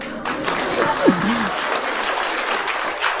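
A crowd bursts into steady applause, a dense, even patter of many hands clapping that holds for about three seconds, with a brief voice call rising through it early on.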